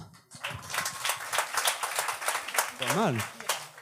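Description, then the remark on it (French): Audience applause answering a question whether they know where Marseille is, a dense patter of many hands clapping for several seconds, with a single voice letting out a rising-and-falling whoop near the end. “Eh, est-ce que vous situez Marseille euh, par applaudissement”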